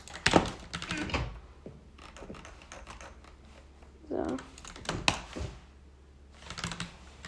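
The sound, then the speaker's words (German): Sharp plastic clicks and ratcheting ticks of a computer mouse wheel being scrolled and clicked, in uneven bursts with brief pauses between them. “Das ist einfach das Mausrad. Das ist so, hat so einen richtig nervigen Sound.”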